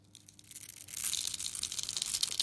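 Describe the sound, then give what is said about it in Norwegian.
Crunchy soap being crushed, played as an example of a good soap sound: a dense, crackling crunch that swells from quiet to steady within the first second, then continues as a bright, gritty crackle with no voices. “spille av et eksempel på hvordan det skal høres ut når man får fin såpelyd.”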